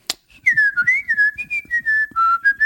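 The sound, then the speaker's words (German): A person whistles a wandering, tuneful line, imitating children whistling, with a brief sharp click at the start and soft low breathy noise beneath the pitched tone. “Ich hatte das erste Mal beim Soundcheck pfeifende Kinder auf der Bühne.”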